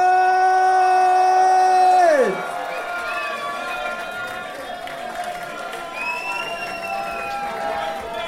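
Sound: audience cheering and applauding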